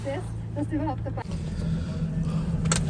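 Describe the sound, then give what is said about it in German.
A car leaves the Inzersdorf site in Vienna and drives onto the motorway while it is still dark, with a steady low engine and road rumble that grows fuller after a brief voice-like tone at the start, the noise continuous throughout. “Wir verlassen den Standort Inzersdorf und begeben uns auf die Autobahn.”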